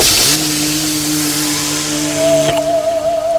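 A car engine runs with a loud, steady droning hum, its pitch holding level and a higher whine joining partway through, as a car comes up from behind on the road and stops for someone asking for a lift. No one speaks.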